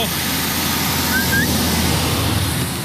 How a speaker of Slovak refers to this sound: Ide auto. Ja ho zastavím.